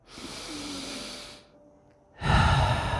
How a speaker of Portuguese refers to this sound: Volta a respirar o ar puro que tem aqui fora. Respira esse ar puro comigo.